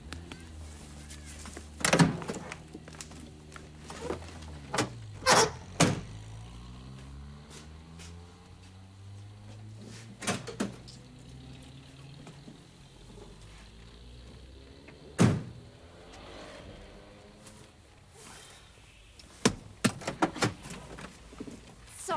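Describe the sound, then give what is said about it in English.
People getting into a car at the start of a driving lesson: several sharp car-door thuds and latch clicks spaced out over about twenty seconds, with shuffling, rustling and a low whirring motor sound between them. No one speaks. “Let's get in.”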